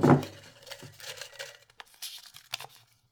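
Dry paper rustling and crinkling as a small colorful slip of paper with a question is pulled from a glass mason jar, starting with a soft knock, then scattered light scratches and crinkles with no voices.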